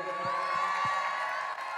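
An audience at La Rayonne breaks into steady, dense applause for the lighting technician, mixed with cheering and whoops, a sustained wash of clapping that holds at an even loudness, with a high whistle-like tone running through it.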